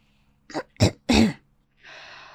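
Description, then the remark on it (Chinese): A man clears his throat in three rough, rasping bursts, the last one drawn out and gravelly, then spits out phlegm built up in his throat with a brief hissing splat. “金爷清了清嗓子，吐掉了淤积在嗓子里的老痰。”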